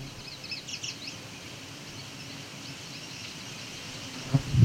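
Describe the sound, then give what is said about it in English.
Faint songs of a common yellowthroat and a song sparrow by a swampy area of cattails: a short burst of high warbled notes near the start, then softer calls over steady outdoor background noise, with a low thump near the end. “Yeah, yellow, th yellow throat, song sparrow.”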